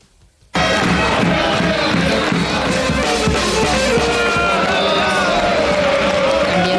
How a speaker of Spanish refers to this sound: Esto es, ¿eh? el, esto es el ambiente de la Copa del Rey, que es una competición que no tiene absolutamente nada que ver con el resto de copas o de mm, nada que se haga en España